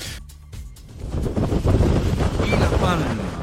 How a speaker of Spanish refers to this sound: Sonido directo del volcán que crece a ojos vista. Es el primer volcán que se retransmite en directo.